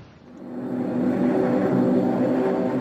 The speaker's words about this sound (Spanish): 350 aviones japoneses cubrieron el cielo de Hawái, abriendo fuego con ráfagas de ametralladoras y lanzando bombas y torpedos.